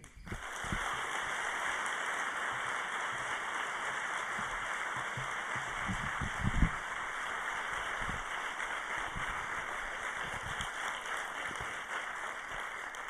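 Dense, steady applause from a large crowd for a speaker fills the whole stretch, a loud crackling wash of many hands clapping at once with no voices over it.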